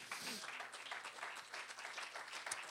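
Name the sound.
audience clapping hands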